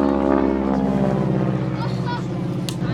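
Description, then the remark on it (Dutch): A historic Harvard propeller aircraft of the Royal Netherlands Air Force Historic Flight drones steadily overhead in honour of a memorial plaque unveiling, its loud engine hum filling the scene with a low harmonic buzz while a voice speaks over it. “En wat jullie nu horen is een Harvard. Dat is een historisch vliegtuig die komt overvliegen van de Koninklijke Luchtmacht Historische Vlucht te ere van deze onthulling.”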